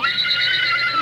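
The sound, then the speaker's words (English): A horse whinny rings out alone for about a second, loud, a high quavering neigh that holds steady before cutting off. “Well, I'm, uh, I'm Goofy Horse Collar.”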